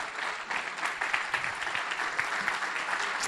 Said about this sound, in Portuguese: Podemos em pé aplaudir esse amado Jesus.